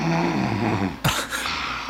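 A person who has just fallen asleep snores: a drawn-out, low rumbling snore fills the first second, followed by a couple of short, breathy, hissing exhales. It is fairly loud, with no talking.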